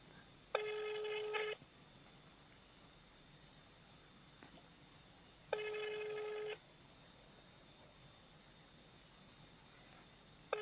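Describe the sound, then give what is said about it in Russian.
A telephone ringing tone from a call to a company sounds over a quiet, hissy line: two steady one-second buzzes about five seconds apart, with a third just starting at the very end. No one speaks. “Вот телефон функционирует.”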